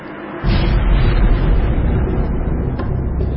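A fiery explosion erupts after a brief quiet moment, then rolls on as a loud, deep, continuous roar and rumble. No voices are present.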